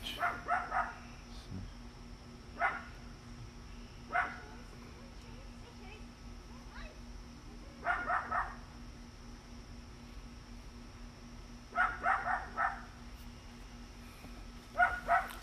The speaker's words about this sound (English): A little barky puppy.